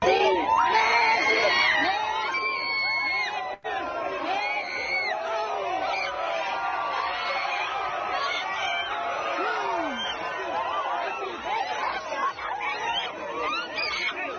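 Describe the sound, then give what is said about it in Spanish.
A dense crowd of Messi's fans screams and shrieks in euphoric excitement, high-pitched voices overlapping continuously and loudly for the whole stretch, with cheers and whoops rising out of the din. “Los que nos están escuchando solamente, pues escuchen nomás los gritos de euforia de los seguidores.”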